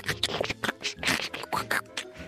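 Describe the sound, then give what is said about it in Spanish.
Scratchy crackle from a record needle riding a vinyl groove before a song begins, with uneven bursts of noise over a low, steady hum, moderately loud, with no voices. “y oye, y ese, y ese chasquido inicio antes de la canción.”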